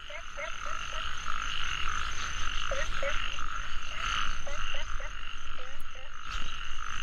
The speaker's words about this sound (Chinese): 那一夜，福大躺在牛车上，青蛙的叫声很吵，呱呱呱的。